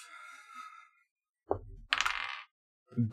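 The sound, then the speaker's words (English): Dice clatter across a hard tabletop in a few quick, sharp bursts of rattling clicks, fairly loud, with brief quiet gaps between the tumbles, rolled for an insight check. “I need to never use these dice ever again.”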